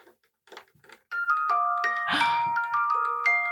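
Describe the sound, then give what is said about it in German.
A tiny music box, small enough to fit in a matchbox, is laid on a wooden double bass and plays a tinkling melody that rings out resonantly through it. Bright, sustained bell-like notes overlap, fairly loud, after a few soft plinks at the start. “Jetzt hören wir es uns nochmal an. Jetzt habe ich den da das, draufgelegt, das Glockenspiel.”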